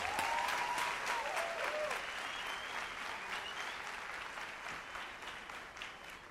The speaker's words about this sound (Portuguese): E agora recebam com uma grande salva de palmas